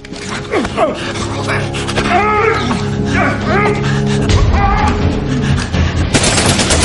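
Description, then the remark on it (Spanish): Sharp bursts of submachine gun fire from a gun drawn by a Serbian man crackle amid shouting, strained voices, ending in a loud, dense, rapid volley that fills the last second. “El serbio saca una metralleta.”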